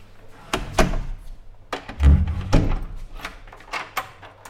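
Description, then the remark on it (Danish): A heavy prison door in the basement at Hersted Vest being locked: a string of sharp metallic clicks and clunks, with two deep, solid thuds in the middle, over a faint steady low hum. No one speaks. “Ja, jeg låser lige omgang her. Slukker vi lige låsen.”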